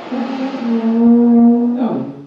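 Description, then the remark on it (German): A single low, droning note is blown loud on an alphorn by an unpracticed player for nearly two seconds, wavering a little before cracking and sputtering out at the end. “Dieses Blasen, das ist der klägliche Versuch von Alexander Tauscher, richtig zu blasen”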